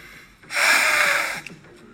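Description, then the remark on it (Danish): A single long, forceful puff of breath is blown into a condom to inflate it like a balloon. It is fairly loud, lasts about a second, and has no talking. “Ja, og det man altså kunne høre, det var et, et øh, verden, der pustede et et øh, kondom op, hvis man tænkte, hvad var det for en underlig lyd?”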